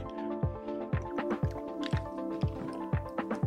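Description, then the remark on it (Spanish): Someone drinks water in a steady series of about seven wet gulps, roughly two per second, over a faint constant hum, with no talking. “Estoy tomando agua.”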